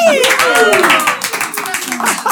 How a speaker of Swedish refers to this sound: stor applåd!